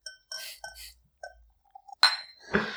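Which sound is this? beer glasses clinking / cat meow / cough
beer glasses clinking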